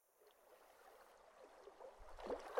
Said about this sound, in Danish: Mens Geo står og tænker, lytter han til de blide bølger og den rolige vind.